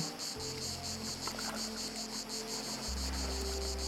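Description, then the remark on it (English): Cicadas drone steadily high in the trees above and behind the listener, a shrill, high buzzing that pulses in a fast, even rhythm, with a low mechanical hum running underneath. “The wind picks up again, and as you listen, you tune in to the cicadas. High in the trees above and behind you.”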